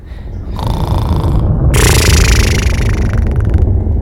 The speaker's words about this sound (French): Le chien s'allongea sur le tablier et s'endormit. Chaque ronflement ressemblait à un éclat de tonnerre.